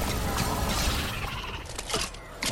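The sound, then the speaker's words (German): Dense, crackling blast noise of things exploding in a video game with zombies fills the whole stretch, with a burst of sharp breaking and debris impacts near the end. Loud, with no voices. “Pass auf, die Dinge explodieren.”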